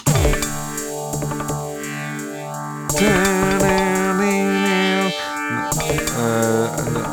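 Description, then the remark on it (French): A drum machine plays pattern 8, a steady, driving beat layered with buzzing, distorted synth tones that sweep up and down, shifting to new variations twice along the way. No one speaks. “Ça c'est le pattern. Là c'était le pattern 8.”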